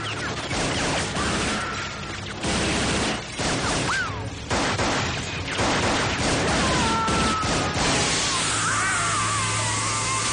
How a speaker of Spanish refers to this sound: y comienza a disparar sin control con una metralleta. Varios de los tiros impactan en uno de los motores y comienza a arder con grandes llamaradas.